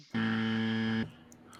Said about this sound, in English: I was just hitting the buzz button because it's in front of me.